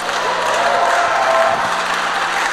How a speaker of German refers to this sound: Gebt doch mal den Leuten einen echten fetten Applaus,